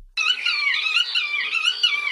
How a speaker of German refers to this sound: Jetzt mache ich mal die Uferschnäpfe an.